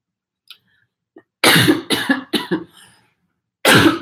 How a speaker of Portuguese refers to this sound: O programa também não é editado, então a pessoa tosse, pessoas tossem, tá? Só para ficar, vocês ficarem sabendo, pessoas tossem, espirram e outras cositas más.